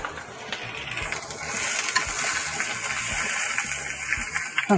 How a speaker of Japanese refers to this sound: 一回、肉を先に入れちゃおうか。で、牛肉を一旦、ちょっとまたうるさくなります。